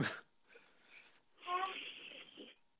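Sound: dog in the background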